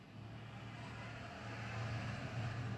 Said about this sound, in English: because, like you just heard, trucks pass my house every two seconds.